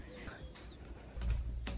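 Small birds chirp outdoors by a terrace in a few brief, thin calls spaced apart, fairly faint over a low rumble of outdoor background noise.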